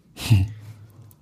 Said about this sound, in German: Ein Schluck Wasser.